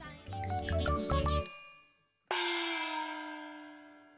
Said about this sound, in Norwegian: Uh, det her er en bitte liten melodi som, uh, som, er på starten av hver musikkvideoinstallasjon som nå det siste året har blitt gitt ut med jevne mellomrom.